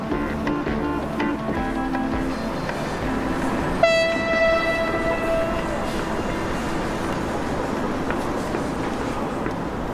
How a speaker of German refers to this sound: Der Weg zum Abstellgleis auf dem Prager Vorstadtbahnhof führt über einen metallenen Steg. Unten rattern Züge vorbei und auf den hintersten Gleisen stehen, Reihe an Reihe, Gelbe Waggons.